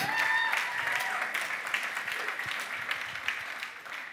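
A crowd applauds steadily for about four seconds, a dense wash of many hands clapping at once, with a few cheers or voices rising briefly near the start.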